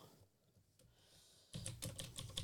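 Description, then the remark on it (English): After a moment of near silence, a burst of fast, clacky typing on an old-fashioned computer keyboard that sounds like a typewriter starts up, the keys striking in a quick, uneven stream. “I have this old-fashioned keyboard that sounds like a um, uh, a typewriter, which I love.”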